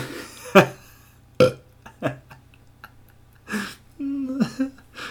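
Several loud burps come in quick succession with short pauses between, ending in a longer, croaky, drawn-out belch.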